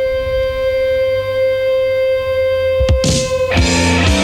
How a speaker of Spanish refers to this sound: este es un clasicazo que se llama con toda esta intro de guitarra